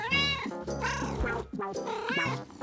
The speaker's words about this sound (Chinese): 这时候，猫咪喵喵叫，好像要说什么喽。